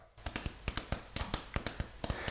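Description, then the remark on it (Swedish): Crisp tapping on a hard surface mimics galloping horse hooves, a steady run of about a dozen sharp knocks in uneven pairs, with no talking. “om jag tar om det där, skulle du kunna imitera hästhovar”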